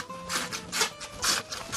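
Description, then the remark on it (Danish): A hand saw rasps through wood in steady back-and-forth strokes using the whole length of the saw, each pass a bright, gritty burst, moderately loud with no voices. “Og bare give en gas. Og så brug hele saven.”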